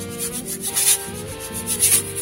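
A hand rubs back and forth across a wall, played as a musical instrument, in steady, rhythmic strokes, each swell rising to a brighter scratchy hiss, with a faint low hum underneath and no talking.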